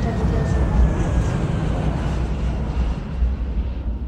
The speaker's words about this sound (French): Et à cette belle phrase s'ajoute le bruit de l'aéroport, comme je vous l'ai dit.